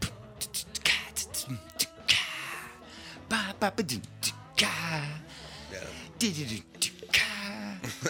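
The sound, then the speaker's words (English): A voice beatboxes a drum groove, with punchy low booms and sharp hissing cymbal-like bursts repeating in a steady, lively rhythm for several seconds. “It was it had this groove. All right. Boom, ting, cats,”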